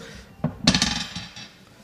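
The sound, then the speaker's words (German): A twenty-sided die is rolled and clatters across a tabletop: one sharp tap, then a quick burst of rattling bounces that patter out and settle within about a second, landing on 10. “Ich würfel jetzt erstmal”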